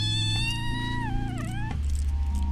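A cat named Maleko, put in a tree and hanging there as cat training, lets out a long, drawn-out complaining yowl that bends in pitch, fairly loud, over a steady low background hum, with no talking.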